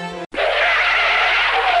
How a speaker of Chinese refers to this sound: 他干脆啊就踩了刹车，